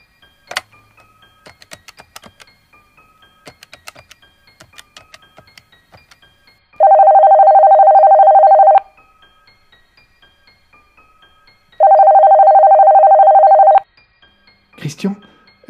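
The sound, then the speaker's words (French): A run of quick clicks and beeps from a phone being dialed, then two long, steady ringing tones about two seconds each with a pause between, clear, ending with a brief clatter. “Et puis, comme si soudainement elle avait pris la meilleure décision qui soit possible, elle alla chercher le téléphone dans la pièce à côté.”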